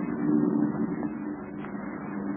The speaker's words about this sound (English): That's a comfortable sound. You know it isn't the invaders' planes, eh? Oh, how do you know it is? By the sound. Besides, those planes are coming into land, and Invaders won't land here.